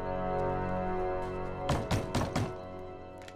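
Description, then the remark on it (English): Four firm knocks on a door land in quick, even succession over a steady, sustained musical drone, then the drone carries on alone. “The four knocks, of course.”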